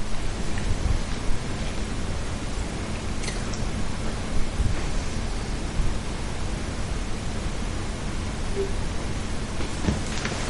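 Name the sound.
rain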